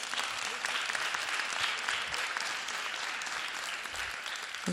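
Steady audience applause fills the whole stretch, a dense wash of many hands clapping at an even, sustained level with no talk over it.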